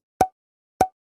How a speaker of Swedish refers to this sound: liten ljudeffekt, en liten blip